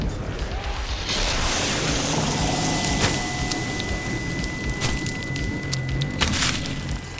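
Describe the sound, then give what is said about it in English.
A loud explosion erupts after a brief moment and keeps roaring for several seconds, full of crackling debris and scattered sharp bursts over a heavy, dense rumble. “and then the Ringmaster looks around shocked, and it all just comes in imploding on him. You just see this explosion”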